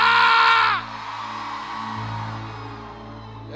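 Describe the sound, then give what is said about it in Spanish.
A group of women in a church lets out a loud, high-pitched collective war cry lasting under a second, which breaks off into a lingering murmur of crowd noise over a steady low hum. “A ver, las mujeres con ovarios, un grito de guerra.”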